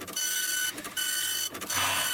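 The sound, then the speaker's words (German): A fax machine receiving and printing, a steady high mechanical whir with a few brief stutters as the page feeds through, with no voices. “Also immer wenn irgendein so Mysterium was Wichtiges zu senden hat, dann schicken sie uns das über Fax.”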